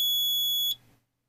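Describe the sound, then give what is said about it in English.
A new countdown timer gives one loud, steady, high-pitched electronic beep lasting under a second, then cuts off abruptly, leaving only a faint low hum. “Okay, I think it's going to count down.”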